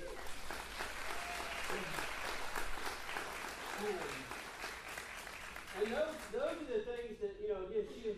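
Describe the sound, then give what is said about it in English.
A crowd claps steadily throughout for the reigning Miss Moreland and Miss Cinderella, a dense wash of applause at moderate volume, with voices breaking in and talking over the clapping toward the end. “Give it up for her.”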